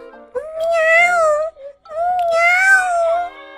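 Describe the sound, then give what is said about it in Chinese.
A voice imitates a kitten's meow twice, two drawn-out, high, wavering mews of about a second each with a brief pause between, loud and clear with no other sounds. “只见阁楼上又一道亮光闪过，哎呀，猫咪米娅现在也变成了一只小小猫，喵”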